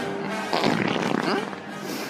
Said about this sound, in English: So the Tatooine one, though, we've got to talk about that because listed on the Tatooine one, one of the last sound effects that were on there was the Eopie fart.